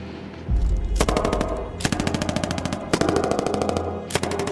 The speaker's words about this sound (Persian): تیراندازی بالا گرفته بود